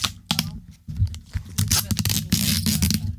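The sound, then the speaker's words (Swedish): A piece of adhesive tape being pulled and torn off a roll, a series of sharp, crackling rips in quick, uneven bursts over a few seconds. “Men vi gör så här, jag ska ta och hämta en liten, eh, hämta en tejpbit här för det här går ju inte.”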